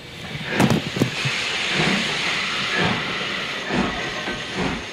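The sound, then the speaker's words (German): A steam train, the train to Paris, hisses steadily at a station, a loud continuous rush of steam with a couple of sharp bursts near the start and low, heavy rumbles underneath. No one speaks. “Sie erreichten den Zug nach Paris gerade noch.”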